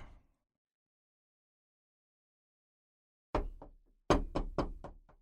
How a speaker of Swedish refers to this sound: Nej, jag, jag knackar på hemma hos, hos dig